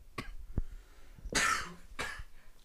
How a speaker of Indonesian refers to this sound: sorry sorry batuk